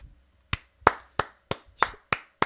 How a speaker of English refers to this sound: Slow clap, round of applause. Thank you, Brett. Thank you, thank you.